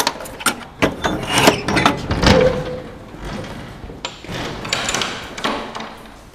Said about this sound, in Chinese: 开门了